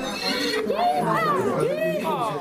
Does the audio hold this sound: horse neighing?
yes